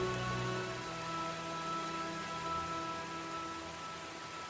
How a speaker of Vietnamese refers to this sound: đường dốc bây giờ đã ướt và trắng xóa vì mưa chốc nữa anh đi bỏ thư cho anh đường sẽ trơn vô cùng mưa to lắm anh ạ